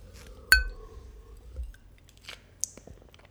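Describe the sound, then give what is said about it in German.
A single bright clink of glasses during a toast rings out clearly, its tone lingering briefly, followed by a few quieter clinks and small handling noises. “Prost. Prost.”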